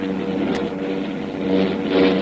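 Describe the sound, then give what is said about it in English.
Propeller airplane engines of a heavily loaded plane drone steadily overhead in the cold, struggling and getting worse as the plane tries to climb; a rough, rumbling hum that swells and wavers slightly toward the end, with no voices over it. “Those motors are getting worse.”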